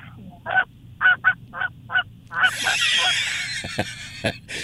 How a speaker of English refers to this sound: It's cold. We got a big group of geese coming in.